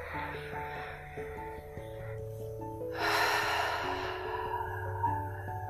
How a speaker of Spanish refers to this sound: Así que bueno, te voy a pedir que tomes una respiración profunda y exhales por boca.